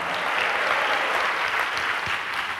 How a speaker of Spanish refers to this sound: Dale un aplauso a Dios, hermano. A su nombre, gloria.